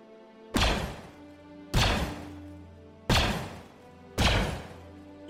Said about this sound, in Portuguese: Quanto ao Savou, tu nota que dois prédios sobem duas torretas e começa a atirar em direção à nave. E vocês começam a escutar isso aqui.